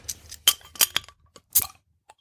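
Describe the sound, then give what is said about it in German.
A few sharp clinks and taps of glass and metal in an irregular cluster as a glass of honey winter beer is handed over and a bottle opener is set down, followed by a faint final tick; no one speaks. “So, ich reiche dir mein Glas rüber. Ja, und ich nehme es an, sobald ich den Flaschenöffner weggelegt habe.”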